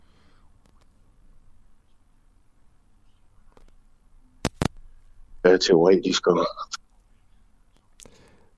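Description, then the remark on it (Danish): A phone call line to Preben Bang Henriksen cutting in and out: long near-silent gaps, a few sharp clicks, and a brief fragment of a voice speaking before it drops away again. “jeg beklager, der er lidt dårlig lyd her.”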